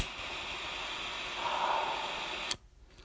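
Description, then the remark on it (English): A butane torch lighter, being readied to light a cigar, hisses steadily with a broad, rushing roar for about two and a half seconds, then cuts off abruptly with a small click, leaving near silence. “that delicious hum of ozone and death as my small lightsaber, my small, innocent lightsaber, prepares to light a beautiful, beautiful cigar.”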